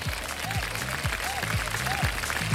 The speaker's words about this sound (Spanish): Y la neta, pues aplausos, aplausos por el 8M.